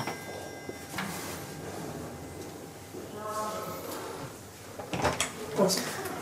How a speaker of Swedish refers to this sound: När de kommit ut så ringer jag på dörren.